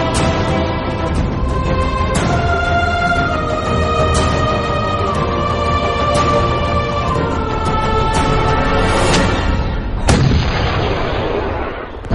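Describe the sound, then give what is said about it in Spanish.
Artillery fires in a steady series of sharp booms roughly every two seconds over a sustained droning musical bed, then one louder blast near the end rumbles away. A small Portuguese artillery piece fires a ball with a great flash of light, the ball flying into houses. No one speaks. “Tras un gran fogonazo de luz, una bala surcó los aires perdiéndose en las casas que había a nuestras espaldas.”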